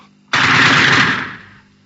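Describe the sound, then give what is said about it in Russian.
A single loud gunshot cracks out suddenly, followed by a rough, roaring echo that fades away over about a second. No voices accompany it. “который стоял в охране боевой позиции противотанковой группы, увидав, как после его выстрела упал русский солдат”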